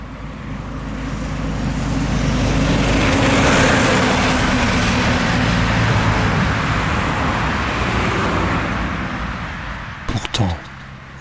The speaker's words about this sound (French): Ces bolides, les voitures que je venais de découvrir, étaient sur le point de disparaître, elles aussi définitivement.